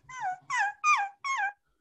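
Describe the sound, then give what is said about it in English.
Four short, high-pitched dog yips and whimpers in quick succession, each sliding downward in pitch, fairly clear, with no one talking; the dogs wear little shoes on the way to the park in a city centre. “we live in the city centre, there's lots of um, broken glass, and so they wear little shoes so they don't cut their feet on the way to the park. Um, it's very nice. But yeah, you could just hear them like going like”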